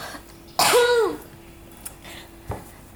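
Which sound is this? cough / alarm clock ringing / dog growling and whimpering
cough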